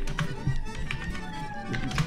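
Irregular clicking taps like typing on a computer keyboard, a handful of sharp keystrokes spread over a couple of seconds, close by and moderately loud over a low steady background hum.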